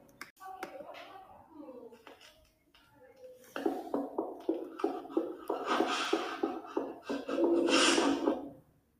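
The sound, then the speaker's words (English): A quick, steady run of footsteps, sharp and clicky, picks up partway through and grows louder, with heavy, rough breathing rising over them near the end. “There seems to be footsteps and heavy breathing, followed by a donna in the background.”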